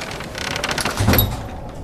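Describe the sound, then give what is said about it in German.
A door bolt slides across with a rough scraping rasp, then knocks shut with a dull clunk, moderately loud over a faint rushing background; a door being bolted against a storm on the Greek island of Kos, about 400 BC. “leg den Riegel vor. Ich will nicht, dass der Sturm die Tür aufschlägt und alles durcheinander wirft.”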